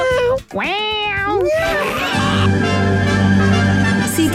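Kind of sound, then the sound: animal, cat meowing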